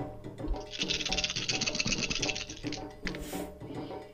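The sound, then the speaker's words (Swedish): Seven dice rattling and clattering together in a dense burst lasting about two seconds, then stopping, with a soft musical bed running underneath throughout. The roll comes up a six. “På sju tärningar, det var ingen höjdare.”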